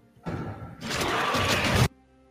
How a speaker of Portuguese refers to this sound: Tá chamando o dragão e já, já se ouve o farfalhar. Pode-se falar farfalhar das asas do, do dragão? Não tenho certeza se farfalhar é. O bater o... das asas, né? O bater das asas é mais bonitinho.